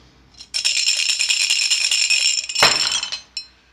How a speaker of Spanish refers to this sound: El estruendo del cubilete. Y las monedas no paraban.